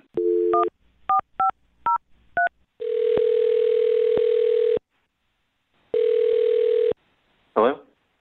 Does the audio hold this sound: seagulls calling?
no